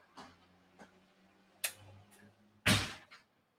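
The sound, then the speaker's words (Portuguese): A door swings shut with a solid thud, preceded by a few lighter clicks and knocks, all over a faint steady low hum with no talking. “Ninguém vai fechar a porta?”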